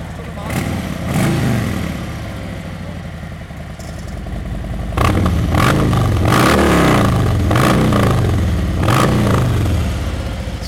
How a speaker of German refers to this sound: und was wir jetzt zum Schluss noch gehört haben, das war die Harley von Martin